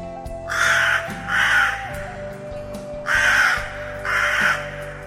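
A crow caws four times in two pairs, harsh and loud, each call drawn out with a short pause between pairs, over a low steady hum.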